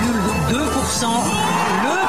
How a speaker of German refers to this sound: 58,2 Prozent für Emmanuel Macron und großer Jubel seiner Anhänger, die sich vom Eiffelturm versammelt hatten.